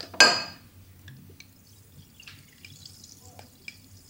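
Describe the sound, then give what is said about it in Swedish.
Carbonated water poured from a bottle splashes sharply into a large glass, then settles into faint, scattered fizzing crackles and small drips over a low steady hum. No one speaks. “Jag vill inte hälla upp för mycket ifall att jag häller för långt.”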